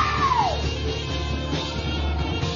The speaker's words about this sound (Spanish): Todo el que lo crea, demos un grito de júbilo. ¡Fuego de Dios!